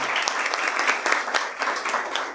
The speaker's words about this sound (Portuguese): Bom, em seus nomes, eu queria cumprimentar todos os professores e professoras da rede pública desse país, pedindo a salva de palmas a todas elas aqui.